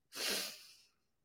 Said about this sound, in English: I am just sitting here coughing and I keep tasting the ramen that I had not too long ago.